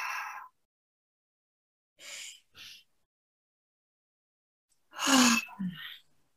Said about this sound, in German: Atme mal ganz tief ein und aus, durch die Nase ein und durch den Mund mit einem Seufzer aus. Oh. Noch zweimal.